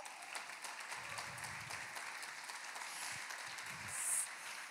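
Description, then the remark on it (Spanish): A crowd applauds the Holy Spirit at a religious gathering broadcast on Vive Radio 104.5, a steady, dense wash of many hands clapping with a slight swell near the end, and faint cheering or voices mixed underneath. “Así que vamos a darle un aplauso al Espíritu Santo.”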